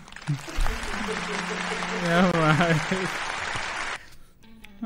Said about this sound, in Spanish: Internet. Los aplausos, papi, los ah. aplausos.